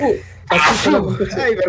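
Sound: a person sneezing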